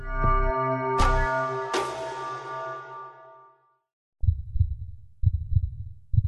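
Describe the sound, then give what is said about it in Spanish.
A ringing, sustained musical hit decays into silence, then a heartbeat sound effect begins: low thumps in lub-dub pairs repeating steadily about once a second. “Escucha el latido de los mercados en Capital Radio.”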